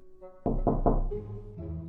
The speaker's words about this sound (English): At the same time, the wolf knocked at the grandma's house.